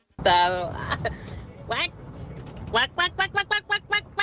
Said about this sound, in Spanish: Ese es el pato, número tres.